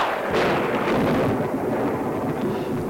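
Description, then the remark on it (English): The Castle Thunder stock sound effect: a loud, sustained roll of thunder with a sharp crack near the start, rumbling on densely and evenly for several seconds with no voices. “Castle Thunder isn't used so much anymore. It was in heavy rotation up until about the late 80s, particularly in animated films”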